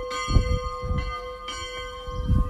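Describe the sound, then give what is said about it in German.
Church bells of a Catholic church in Lübs ring out in a steady midday peal, several strikes overlapping with sustained, shimmering tones that hang in the air, moderately loud and without any voices. “Die dritte Kirche in Lübs ist eine katholische Kirche und auch sie hat einen Mittagsläuten.”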